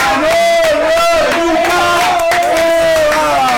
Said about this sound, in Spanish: Muchas gracias. Un aplauso. Gracias, Perú.